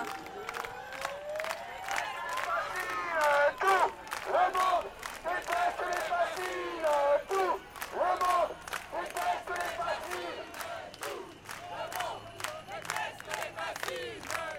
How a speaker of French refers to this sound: Et là on entend du bruit et des applaudissements. C'est que je crois que le convoi de l'eau est en train d'arriver. Là. Oui, oui, oui, c'est le convoi qui arrive pour nous soutenir.